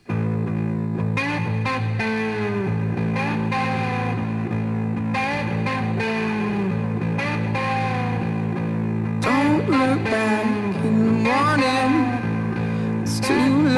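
A song plays at steady, full volume: sustained low bass and chords beneath a gliding melodic line, likely a singing voice, with a processed, slightly distorted texture that grows busier toward the end.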